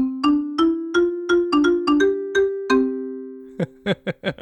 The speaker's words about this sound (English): And so today, our sound is the ubiquitous transition noise throughout public radio, the dulcet tones of the xylophone.